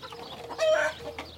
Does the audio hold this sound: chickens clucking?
yes